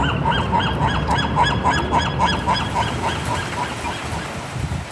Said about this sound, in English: seagulls in Santa Barbara,